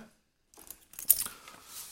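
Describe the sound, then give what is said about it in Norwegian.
A large bunch of keys jangles after a brief silence, with a sharp metallic clink near the middle and lighter rattling shakes continuing to the end. No one speaks. “Og dette er ganske mye nøkler.”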